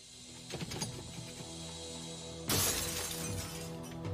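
An intruder smashes in a door of a house near the Nebraska–Wyoming border at night, a loud shattering crash about midway, preceded by a few sharp knocks and impacts, followed by scattered debris sounds; no one speaks.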